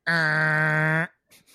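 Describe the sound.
A voice imitates a door creaking open with one loud, steady, drawn-out tone lasting about a second, then a moment of quiet and a few faint words of speech.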